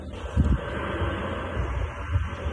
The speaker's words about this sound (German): Und es steht tatsächlich auf der Verpackung von dem Ventilator, der daneben rumbläst. Also es blasen hier quasi zwei.